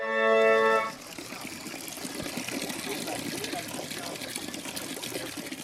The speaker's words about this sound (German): Vom Orgelbrunnen aus geht es über weitere Terrassen und vorbei an einer spritzigen Vielfalt von Brunnenanlagen zur Fontana della Civetta, dem Eulenbrunnen. ein ebenfalls hoher Brunnen, der Vögel und eine Eule zeigt.